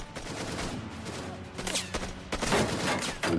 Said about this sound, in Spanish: Uno de los pistoleros intenta disparar a los agentes. Los miembros de SWAT abren fuego.